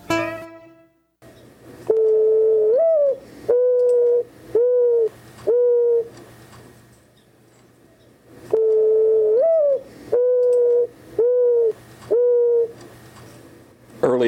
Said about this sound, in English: the morning, one might hear the mourning dove, which is also called the turtle dove or the American mourning dove or rain dove, and formerly was known as the Carolina pigeon or Carolina turtle dove.